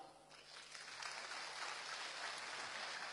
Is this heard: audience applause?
yes